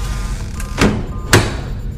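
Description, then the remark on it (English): The door of a time chamber is opened from the inside with two solid clunks about half a second apart, like a latch releasing and the door swinging free, over a low steady background hum. “Dr. Selden opens the door from the inside of the chamber and emerges”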